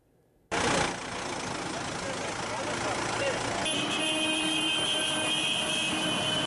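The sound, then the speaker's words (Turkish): Tractor engines idle in a steady, loud rumble that starts abruptly, and partway through sustained horn blasts join in over the continuous engine drone, as indebted farmers in Amasya, Turkey gather with their last tractors on the roads to protest tractor seizures. “Köyde kalan son traktörlerle bir araya geldiler seslerini duyurmaya çalıştılar.”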